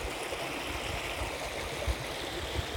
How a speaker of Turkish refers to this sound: Çok mu yakın oldu sesler? Yakın olabilir çünkü derenin dibindeyim abi. Berrak, şeffaf. Paydan bir su. Akıntısının tam dibindeyim. Elimi uzatsam